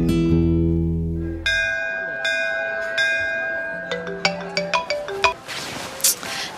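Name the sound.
phone ringtone ringing unanswered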